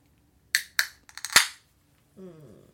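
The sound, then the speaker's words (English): A beer can cracked open: a couple of sharp clicks and faint ticks at the tab, then a loud pop with a brief fizzing hiss. A short vocal sound follows. “Cracking a beer.”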